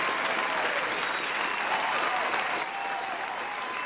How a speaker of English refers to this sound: We're going to give them applause that they will keep on supporting you in all your music projects.